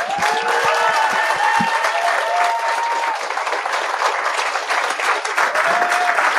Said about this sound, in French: OK, on va, on va commencer avec deux personnes que je pense eux autres aussi ont des problèmes d'alcool. J'aimerais ça qu'on les applaudisse.